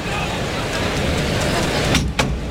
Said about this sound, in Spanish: Ahí está el cerrojo de la puerta de Toriles que se abre para dar salida al primer toro de la tarde, de Núñez del Cubillo. Abierta la puerta de Toriles.